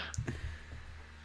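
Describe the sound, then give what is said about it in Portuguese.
An internet call participant's audio breaking up: a few brief digital clicks and choppy low bursts in the first moments, then a faint steady hiss and hum with no clear speech getting through. “Estamos a perder outra vez o ….”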